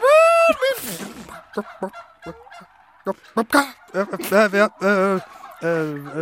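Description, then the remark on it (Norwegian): A person imitates a hen, with a run of short, choppy clucks breaking into louder, drawn-out warbling squawks, with no ordinary talk. “Ja, jeg, jeg, kjenner litt sånn eh, bakk, bakk i stolen min her. Bakk!”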